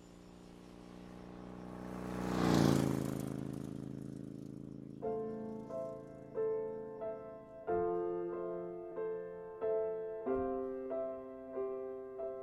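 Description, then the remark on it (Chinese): A loud car engine starts and revs up in a song's intro, swelling to a roaring peak and fading within a few seconds, then the song begins with rhythmic, bright repeated chords. “这个前奏有这个啊， 也是汽车发动的声音。”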